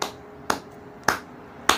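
A slow, lone round of applause: four sharp, crisp claps spaced evenly about half a second apart, fairly quiet, with no voices over them.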